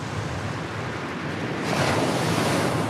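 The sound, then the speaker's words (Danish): A steady wash of ocean surf, with a wave swelling and breaking more loudly partway through, then a continuous roar of water and some wind rumble. No one speaks. “Og ligesom bare ride på bølgen.”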